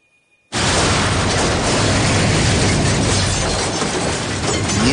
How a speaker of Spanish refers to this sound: El vehículo da varias vueltas hasta estamparse fuertemente contra el suelo.